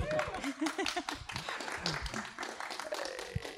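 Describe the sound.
A round of applause: dense, steady clapping from a group that continues for a few seconds at an even, fairly loud level, with a few voices murmuring underneath.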